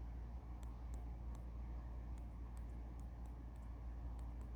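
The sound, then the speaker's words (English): Faint finger taps on a mobile phone placed far away from the microphone, roughly ten light clicks in an irregular pattern, barely rising above a steady low rumble of background noise, with no one talking. “And it's interesting because I think my my microphone on my phone is picking up some of the you know signal so like I can tap the phone, which is far away from my microphone, and it gets some signal.”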